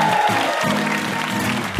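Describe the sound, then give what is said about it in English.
Steady audience applause for VIP Meg Wolitzer at the end of NPR's Ask Me Another, a dense wash of many hands clapping at an even, sustained level throughout, with no voices standing out. “One last round of applause for our VIP, Meg Wolitzer.”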